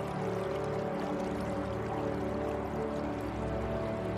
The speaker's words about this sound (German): Der kleine Bach begleitet uns jetzt nicht mehr sondern sucht seinen eigenen Weg.